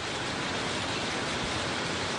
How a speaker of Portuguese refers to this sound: Olha, tivemos que nos abrigar, porque a chuva nesta quarta-feira em Porto Alegre intensa temporal forte